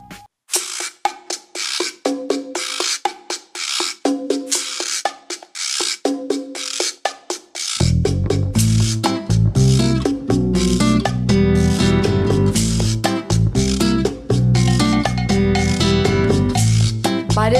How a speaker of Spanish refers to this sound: Comenzamos. Y lo hacemos con una canción